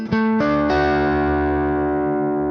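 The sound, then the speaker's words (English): A distorted electric guitar chord is struck three times in quick succession, then left to ring out loud, slowly fading with no voices present. “So if we keep the minor third out of it, it still sounds like the top of a major chord.”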